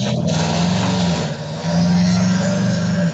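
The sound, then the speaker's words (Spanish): A loud, steady car engine hum, dipping briefly midway before swelling back up, with no talking over it. “Es un carro, quién sabe, ¿no?”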